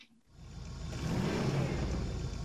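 A car engine starts up and revs, building quickly from near silence into a loud, steady roar with a deep rumbling low end that holds to the end.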